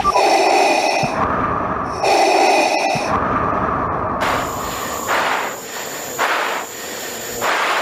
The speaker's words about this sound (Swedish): Det som är på radion är ju att han, det, han sitter först och andas så att det låter som att han är Darth Vader.